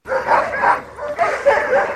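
A chorus of sled dogs barking and yipping continuously, several overlapping voices, with excited howls and whines mixed in, at musher Nick Petit's wooden house in the woods at Big Lake, an hour's drive from Anchorage, with dog kennels all around.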